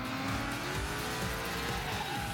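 A racing car engine roars steadily with rising and falling pitch while tires squeal and skid, a loud, continuous video-game style driving sound with no voices.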